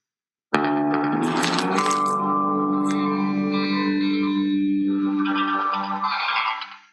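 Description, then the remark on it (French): A short, heavily processed musical sting introducing a football quiz about the Girondins de Bordeaux, with sustained harmonic tones and a bright swirling shimmer, rich in echo and effects, ringing out for several seconds before cutting off; no voices. “Allez, jingle quiz.”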